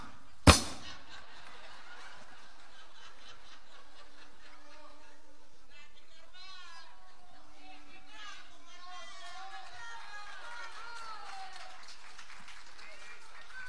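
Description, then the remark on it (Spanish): Thin, scattered applause from an audience, a few hands clapping unevenly under a steady murmur of crowd voices, opening with one sharp, loud clap. “qué aplauso de mierda. Ese aplauso remador que queda solo, empezó a aplaudir así, sí.”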